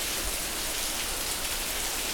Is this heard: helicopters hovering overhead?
no